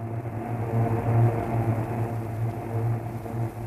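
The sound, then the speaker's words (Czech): A steady, heavy aircraft engine drone from on board a bomber during a practice bombing run over the sea, flying low over the water, with a deep low hum and layered harmonics that stay constant throughout, with no voices. “V archivu Českého rozhlasu se dochovala zvuková koláž z cvičného bombardování této Perutě nad mořem”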